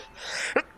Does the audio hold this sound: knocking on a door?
no